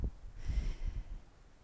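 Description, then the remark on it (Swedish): A deep breath drawn in and let out as a breathing exercise, an airy rush with a soft, low rumble, heard alone without any talking. “Med det så tycker jag att vi bara tillsammans tar eh, och andas.”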